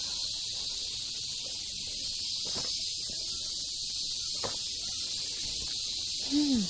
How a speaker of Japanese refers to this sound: はい、今一口目をごくりと、えー、いただきました。もしかしたらね、私の喉の鳴る音が、え皆さんにも届いているかなと思うんですが、え今日はですね、えインドネシアトラジャということで